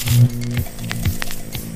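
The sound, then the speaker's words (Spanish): A steady low electrical hum with layered harmonic tones, as vacuum tubes (bulbs) are switched on and warm up, dotted with faint crackles and soft static pops throughout. “Bulbos encendidos.”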